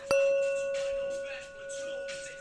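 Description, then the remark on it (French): A Tibetan singing bowl rings out with a steady, sustained tone while small tokens with Tibetan coins rattle and clink inside it in loose, intermittent bursts, fairly clear. “Jetons de lavage avec des pièces tibétaines.”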